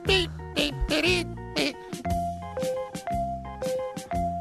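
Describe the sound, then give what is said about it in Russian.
A voice imitates a phone ringtone melody, singing short rhythmic bursts of pitched notes with a steady, looping tune, like a polyphonic ringtone. “Прям вот прям рингтон, слышишь?”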